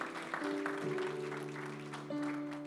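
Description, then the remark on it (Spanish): An audience claps steadily and loudly for the Lord for several seconds, a dense wash of hand claps with no pauses, while sustained keyboard chords hold underneath and shift partway through. “ese aplauso fuerte al Señor porque Él es bueno.”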